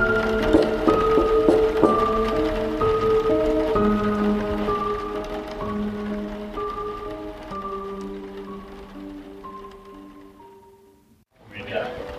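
heavy rain pouring down

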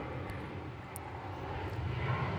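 airplane flying overhead

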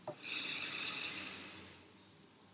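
deep breath in

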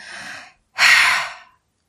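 deep breath

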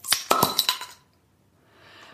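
beer bottles clinking together

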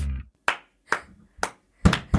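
hand clapping

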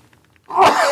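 sneeze

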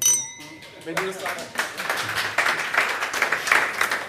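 glasses clinking

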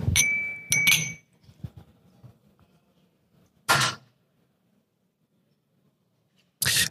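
whisky glasses clinking

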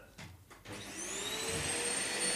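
vacuum cleaner running

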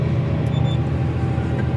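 tractor engine running

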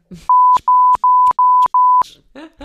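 censor bleep tone

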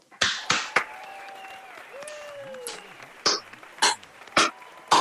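hosts clapping applause

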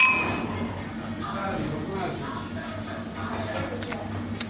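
wine glasses clinking

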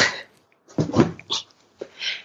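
small dog whimpering

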